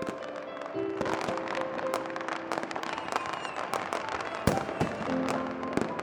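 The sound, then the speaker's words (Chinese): Fireworks set off in the distance in the early hours after midnight, bursting in a steady barrage, with sharp cracks and bangs popping irregularly over a continuous crackling rumble, plus a few whistling tones; no one speaks. “然后当时那个烟花放起来的时候，就感觉，就感觉特别的欣慰吧。”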